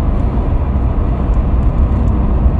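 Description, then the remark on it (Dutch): A steady, dense low rumble of road and engine noise fills a car cabin while driving back from Amersfoort, Netherlands, holding an even level throughout with no voices or distinct events on top. “En waarom ik dus nu in de auto zit vanuit Amersfoort terug naar”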